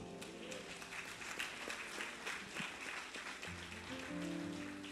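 A crowd claps together for God in dense, steady applause that holds at an even loudness for the whole stretch, with low sustained instrumental tones rising underneath near the end.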